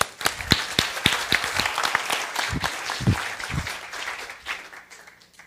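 An audience breaks into applause, dense overlapping claps with a few sharper individual hits, loud at first and gradually thinning out over about five seconds.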